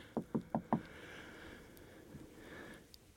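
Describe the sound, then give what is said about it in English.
Four quick, evenly spaced knocks on wood, fairly crisp, followed by a few seconds of quiet background with no talking. “lucky to have four kids who are happy and healthy, knock on wood.”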